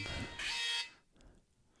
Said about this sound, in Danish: Øh, nå, det var min øh, alarm, der sagde, at der ikke var noget netværk. okay. jeg ved ikke, om vi kunne høre det, men den larmede rigtig meget med telefonen. Det var også frygteligt.